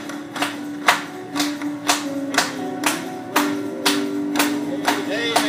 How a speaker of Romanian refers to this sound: Haideți doar să o aplaudăm Lui.